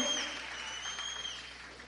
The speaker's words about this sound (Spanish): Séllalo con un aplauso.